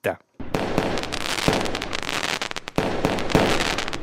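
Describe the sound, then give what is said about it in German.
Dense New Year's Eve fireworks and rockets in Graubünden crackle and bang continuously after a short silence, with sharp louder explosions standing out around the midpoint and near the end, loud. “Für den einen oder anderen darf es gerne mal klopfen und tätschen. Andere hingegen verzichten lieber auf die Raketen oder Feuerwerk.”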